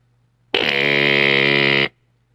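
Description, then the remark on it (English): A single loud, steady electronic door entry buzzer drones for just over a second as someone is buzzed in at home, a harsh rasping tone that starts and stops abruptly against a faint low hum. “Yes, I'll buzz you in.”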